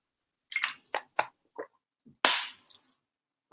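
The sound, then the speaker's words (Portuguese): Someone drinking a bit of water: a string of short clicks and squishy mouth sounds, a louder airy slurp in the middle, then a couple of quick swallows and another click, with no talking. “Ora bem, vamos então, e tenho que beber um bocado de água porque estou a falar muito rápido hoje para conseguir chegar ao mercado.”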